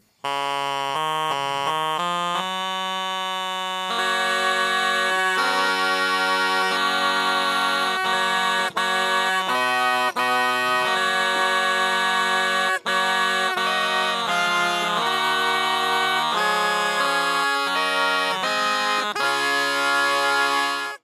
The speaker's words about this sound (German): klingt jetzt nicht nach einem klassischen Regal, aber woher der seltsame Name für diese kleine Orgel stammt, das weiß mein heutiger Gesprächspartner und noch viel, viel mehr.